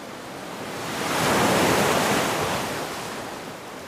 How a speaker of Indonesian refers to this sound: Ragaku dihantam oleh segerombolan ombak.